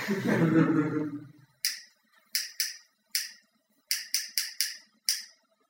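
A lighter flicked over and over: after a short noisy burst, about nine sharp, crisp clicks come at an uneven pace, some in quick clusters, each one bright and snappy.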